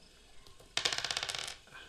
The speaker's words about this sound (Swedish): Så jag tänkte vi ska göra som vanligt att vi slår varsin tärning och den som slår högst får börja. Ska vi en tärning va?